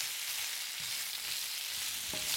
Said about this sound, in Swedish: Ja, jag har testat eh, att göra någon sorts pannbiff kan man säga med nötblod och potatis och lök eh, som jag stekte.